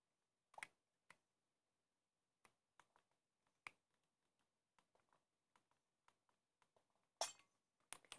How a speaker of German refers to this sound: ich habe Glas kaputt gemacht.